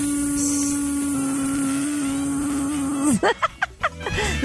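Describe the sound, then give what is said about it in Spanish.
A person, with ears covered by the thumbs and eyes covered by the palms, hums a steady, nasal buzz in imitation of a bee, holding one low pitch for about three seconds before it breaks off into short bursts of laughter. “Se tapa los oídos para no oír y los ojos para poder relajar los ojos sin hacer presión y hace el sonido de una abeja.”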